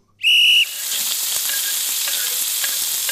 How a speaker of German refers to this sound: Ich habe das Brutzeln wieder gehört.